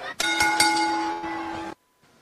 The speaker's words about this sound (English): But that's it. That's all. Ref, ring the bell.